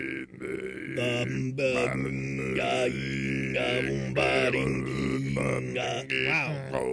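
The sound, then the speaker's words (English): A voice imitates deep throat chanting from the back of the throat, producing a continuous low, rumbling drone with strong buzzing overtones that shift in pitch over several seconds, fairly loud, with brief breaks between phrases. “trying to imitate that, but I found it. I found what they're doing with their throat.”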